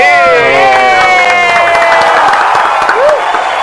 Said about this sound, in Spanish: Espectacular. Oye. ¡Un aplauso!